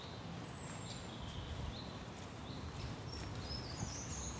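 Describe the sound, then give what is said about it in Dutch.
Thin, high-pitched calls from nestling birds in their nest hole repeat faintly throughout, over a steady outdoor background with low rustling and shuffling noises. “En die jongen maken ook altijd behoorlijke herrie. Dus als we eens even goed luisteren, kunnen we ze misschien ook wel horen.”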